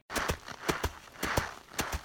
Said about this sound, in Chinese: 孔雀经过时，江江则是在原地跑来跑去。发出清晰的脚步声